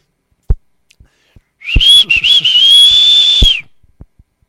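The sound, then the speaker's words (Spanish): A person whistles one sustained, fairly high note for about two seconds, its pitch wavering slightly, while a few short knocks and taps sound before, during and after it. “¿Tú cómo le chiflarías?”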